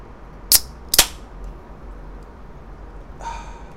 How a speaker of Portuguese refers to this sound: Boa noite, estamos aqui hoje, quinta-feira, 19 de agosto, para ouvir uma Amstel sendo aberta num dia quente de inverno. Pode abrir,